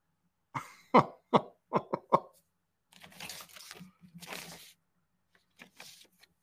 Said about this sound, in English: Are you shuffling your notes?